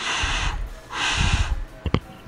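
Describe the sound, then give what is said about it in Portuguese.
Two heavy breaths blow into the microphone with a broad airy rush, the second longer, followed by a couple of short, sharp sniffs or snorts. “seja a minha respiração,”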